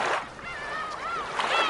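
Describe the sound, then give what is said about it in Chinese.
Steady, loud rushing of sea waves fills the short stretch, with a few warbling, gull-like bird cries rising and falling over the surf. “这是大海的声音”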